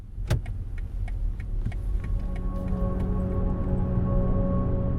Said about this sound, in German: er habe den Chefs bei BMW hunderte Vorschläge gemacht, wie ein Blinker klingen soll man sei hier aber dann doch eher konservativ geblieben.